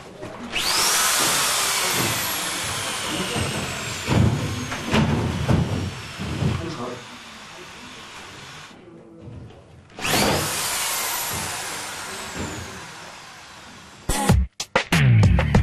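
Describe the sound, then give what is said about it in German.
A power drill whines in rising bursts as screws fix heavy plasterboard panels to a ceiling during drywall work, with tapping and handling knocks between runs, a brief pause, then another loud drilling burst and clattering. “Das Montieren der schweren Gipsplatten an der Decke.”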